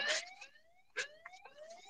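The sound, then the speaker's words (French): An alarm wails in the background, its electronic tone sweeping upward again and again in quick repeated rises, fairly faint, with no one talking over it. “Attends, pourquoi il y a une alarme derrière C'est bon, c'est réglé.”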